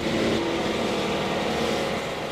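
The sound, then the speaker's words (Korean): A lawn mower's engine drones steadily as it cuts the grass of the football pitch at Seoul World Cup Stadium, mowing in straight lines: a continuous, fairly loud hum with a low rumbling buzz and no breaks or speech. “지금 잔디 깎는 중입니다.”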